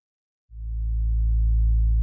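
An alarm played from a computer during a phone call to the police: after a brief silence, a loud, steady low-pitched electronic tone switches on and holds without a break, buzzy with harmonics. No one speaks.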